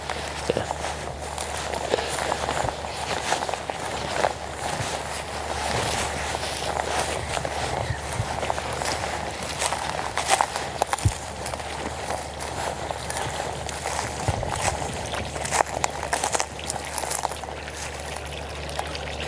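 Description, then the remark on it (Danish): Drainage water gurgles steadily out of a drain pipe, a continuous splashing trickle with scattered small knocks and splatters, running without a break and with no voices. “Eller også det, man kan høre i virkeligheden ikke så meget vandløbet, der klukker som det der drænrør, hvor der løber drænvand ud af.”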